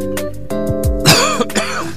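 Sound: cough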